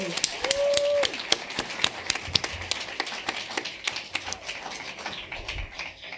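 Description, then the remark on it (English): A crowd applauds the cast of a public play reading, with many hands clapping in a dense, crackling burst that continues steadily for several seconds, alongside a brief high tonal whoop or whistle near the start. “before we get started on this playwright interview, just want to give a round of applause to our amazing cast.”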